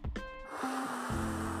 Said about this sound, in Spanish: Vamos a empezar con una respiración profunda. Inhalamos.